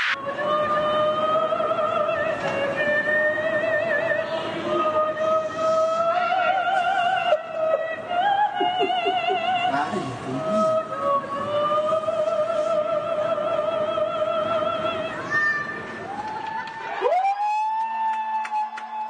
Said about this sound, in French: Au Chili, il y a une chanteuse d'opéra qui n'a pas cassé des briques, mais le couvre-feu, depuis son balcon.